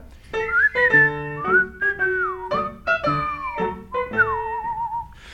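An audience whistles a melody of short sustained notes and sliding pitches, ending in a wavering trill, heard clearly with no talking.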